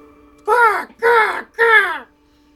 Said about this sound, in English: Is that the bird we're looking for? No, that's that's my eagle. Her name's Joan.